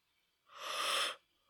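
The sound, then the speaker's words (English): A single breathy yawn, fairly loud, swelling into a long airy exhale for under a second, then quiet with no talking. “Oh, that wasn't a yawn.”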